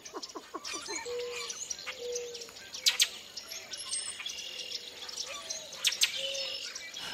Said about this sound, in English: Red-winged blackbirds are calling from the thickets around the pool, along with melodious northern cardinals and gravel-voiced boat-tailed grackles.